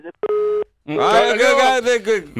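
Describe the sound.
A single short, steady electronic beep of a telephone busy tone sounds loudly and clearly after a phone call disconnects, then stops abruptly before a man starts speaking right after it.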